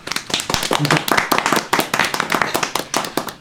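A small group claps quickly and steadily for a few seconds, the sharp hand claps fairly loud and overlapping into brief applause, with a hint of voices underneath.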